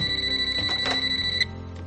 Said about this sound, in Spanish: El joven se levanta a contestar el teléfono.